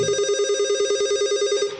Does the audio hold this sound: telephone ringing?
yes